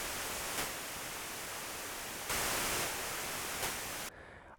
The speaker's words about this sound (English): So, as the look is, it should also sound like a good old analog synth. How it sounds. So, let's check it. This time we have two oscillators with the saw wave, the pulse width, the square and the noise generator.